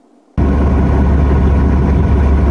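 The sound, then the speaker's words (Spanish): A bus engine cuts in abruptly and settles into a loud, steady idle, a deep continuous rumble with a constant throb, and no voices present. The bus is a mobile vaccination bus serving the neediest areas of Tarrant County. “Este autobús servirá desde esta semana para llevar vacunación a las zonas más necesitadas del condado Tarrant.”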